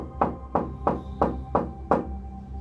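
Six soft, evenly spaced knocks on a wooden bedroom door, each a short muted thud with a slight ring, steady rhythm about one every third of a second, with a faint background hum.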